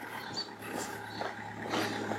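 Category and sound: vehicle, car driving past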